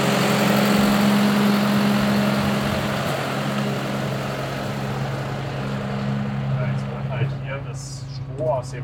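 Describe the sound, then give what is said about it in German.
A straw-blowing bedding machine's turbine runs with a loud, steady roar and a constant low hum, blowing loose straw into a livestock barn onto the animals' lying area. Faint voices come in briefly near the end. “das lose Strom halt mit diesem Turbine hier reingeblasen und landet dann auf der Liegefläche von den Tieren.”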